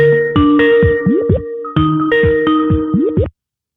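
A Skype call ringing tone plays twice in a row, each burst a bright melodic pattern of chiming tones with a short gap between, loud and clear with no voices present.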